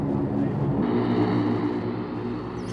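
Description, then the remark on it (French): A loud, steady engine roar from a white airplane carrying Soviet leader Khrushchev as it arrives at Orly airport, France, on 23 March 1960, about 200 metres away; a continuous droning rumble with a low harmonic hum that holds for the whole stretch and eases slightly toward the end. “L'avion du président Khrouchtchev se présente à nous. Il est à 200 mètres de nous.”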